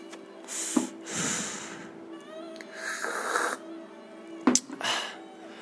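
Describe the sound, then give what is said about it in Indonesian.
A few airy slurps of hot coffee, each a short noisy inhale, with a couple of sharp clicks like a cup being set down, over a faint steady hum. “um, by the way gue mau nyeruput kopi dulu sebentar ya”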